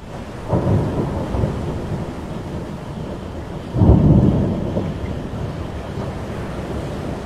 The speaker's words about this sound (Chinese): 隆隆的雷声像是应景一般急切地响起，乌云飞速聚拢。